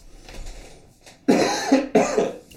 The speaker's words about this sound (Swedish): Ursäkta, jag hostar, men jag har varit sjuk i mer eller mindre en vecka ju.